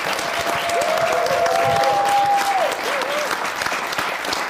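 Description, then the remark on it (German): A room full of people claps steadily and loudly for several seconds for the show's camera and sound operator, a dense continuous wash of applause with a faint whistle or cheer rising through the middle. “Ein Applaus für Nora.”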